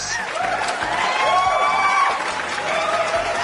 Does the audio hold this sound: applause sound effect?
yes